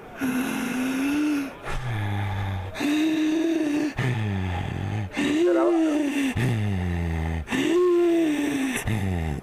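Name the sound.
slow deep breathing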